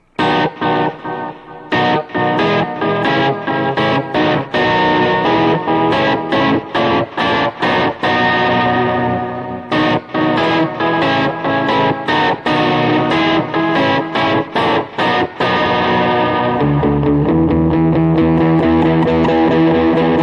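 An electric guitar plays loud, distorted chords through a pitch-shifting effects pedal that does not return to pitch, going slightly sharp, with rhythmic chopped strums for about fifteen seconds before settling into a sustained, warbling tone.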